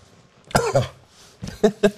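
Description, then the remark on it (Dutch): A man coughs: one harsh, throaty cough followed after a short pause by two quick, sharp coughs in succession. No one speaks. “Man die hoest.”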